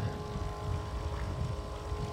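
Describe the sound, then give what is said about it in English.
The engine of a former military boat drones steadily, a deep, constant rumble with a faint tonal hum layered on top and some wind-like noise, with no talking. “That's a former military boat. They bought it from the military.”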